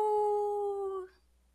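A single wolf howl, a clear sustained tone that holds steady and sags slightly in pitch for about a second before breaking off abruptly into near silence. No one speaks.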